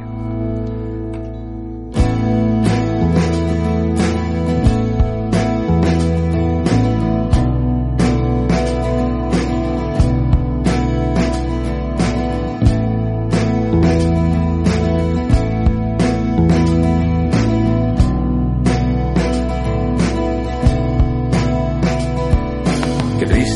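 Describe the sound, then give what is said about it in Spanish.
A song, a preview track from a new EP, plays loud and steady with a driving drum beat, deep bass and acoustic guitar strumming, kicking in fully after a brief softer opening of about two seconds, with no singing. “se va a concentrar en bajo, batería y guitarra acústica”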